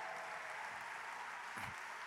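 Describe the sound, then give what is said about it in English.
A crowd applauds steadily for the planned Affirmation Tower in New York City, a dense patter of many hands clapping at an even level throughout, with a brief low thump near the end. “This you could clap it up for that.”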